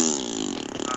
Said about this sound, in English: Did you just fart on Satu'li? I Can- prefer to call it a raspberry nuts.